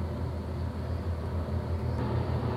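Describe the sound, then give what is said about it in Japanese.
A steady, loud low rumble of an airplane passing overhead, a continuous engine roar with no pauses and no voices over it. “集中できんの飛行機うるさくて。”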